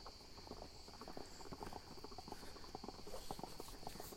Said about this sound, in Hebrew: אה, באים בדהירה, סוסים.